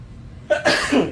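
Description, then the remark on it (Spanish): A single loud sneeze, a sharp breathy burst followed by a rough, wet tail, heard alone with no talking. “Salud. Gracias.”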